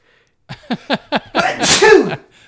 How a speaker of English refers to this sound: And I've got a sneeze.